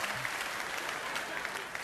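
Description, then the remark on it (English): Steady applause from an audience, a dense, continuous patter of many hands clapping at an even level for a couple of seconds, with no voices standing out. “You don't have to clap for that.”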